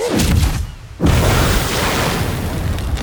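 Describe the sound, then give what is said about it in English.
A loud explosion of a coughed-up hairball bursting into a ball of fire: a rumbling burst, a brief drop-off, then a second heavy blast that swells into a sustained, crackling roar lasting several seconds, with no voices. “Or do my hairballs always explode in a ball of fire?”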